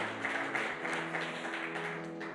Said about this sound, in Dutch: En laten we nog een keer een applaus geven voor die negen mensen die hun leven aan Jezus hebben gegeven.